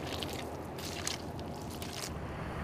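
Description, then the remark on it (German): Footsteps crunch over dry mussel shells on the cracked bed of a nearly dried-up drinking-water reservoir in Uruguay, during months without rain, in a steady walking rhythm, each step a brittle, crackling crush, with a low rumble underneath. “Wenn ich hier so über die Muscheln laufe, und denke, dass ich eigentlich im Wasser stehen müsste hier normalerweise und sehe, wie wenig Wasser hier ist, so wenig wie noch nie, dann ist das wirklich ähm, ein bedrückendes Gefühl.”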